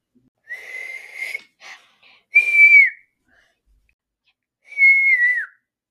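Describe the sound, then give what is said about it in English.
Someone whistles alone in three bursts: a breathy, wavering first attempt, then two clear, sustained high notes that bend slightly downward at the end, with pauses between them. “Yeah, he whistled. He whistled all right.”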